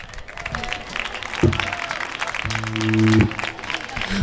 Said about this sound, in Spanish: Un aplauso.